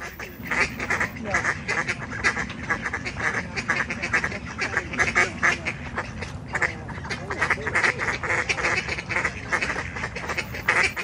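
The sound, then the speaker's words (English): Four ducks, two on a bank and two in the water, quack loudly and rapidly back and forth at each other, a continuous overlapping squabble of harsh calls with no pauses for the whole stretch. “Now remember, this is two ducks on the bank and two ducks in the water quacking at each other the entire time.”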